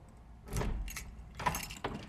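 keys jangling

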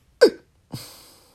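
hiccup

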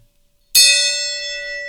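gong being struck

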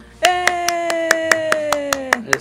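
applause sound effect

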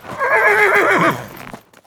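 horse neighing

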